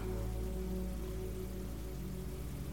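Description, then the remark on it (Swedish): Steady rain falls continuously, a soft, even hiss with no breaks, layered over a low, constant humming drone and no voices. “Och märker du att du tappar fokus på regnet och drömmer dig iväg, tänker på annat när du märker att det har hänt så går du tillbaka till ljudet av regnet och andetaget.”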